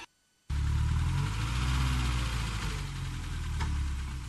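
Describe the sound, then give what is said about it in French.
A car engine abruptly starts after a brief silence as people take the car to get away, then runs in a steady, loud, low rumble, settling into an idle with slight fluctuations. “Maintenant, prenons la voiture et partons.”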